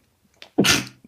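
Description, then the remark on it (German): A single sharp, loud sneeze, with a short breathy intake just before and a bright burst of noise that fades quickly. “Gesundheit.”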